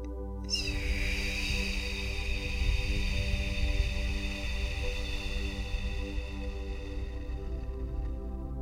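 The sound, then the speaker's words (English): A long, steady whooshing exhale through the mouth for a count of eight, lasting about eight seconds, done as part of a breathing exercise after holding the breath, carrying a faint whistly tone that gradually tapers off, with no talking. “Hold the breath for a count of seven and exhale audibly through the mouth for a count of eight.”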